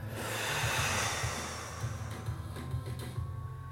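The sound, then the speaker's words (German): A long, steady exhale of breath blown out during a guided breathing exercise, a soft airy rush lasting several seconds and slowly fading, over a low, quiet background hum. “Alles, was in dir brodelt, alles, was, was so viel in dir zusammenstaut, alles, was dir Angst macht, puste das alles raus.”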